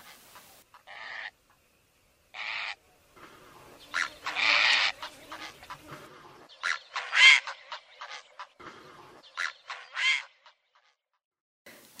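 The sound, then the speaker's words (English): Grey herons at their communal nesting heronry at Lough Neagh, with large stick nests in the tallest trees, give harsh, rasping squawks and croaks in irregular bursts, some short, some drawn out, loud, with several birds calling and no voices present. “grey herons have returned to their communal nest site, the heronry”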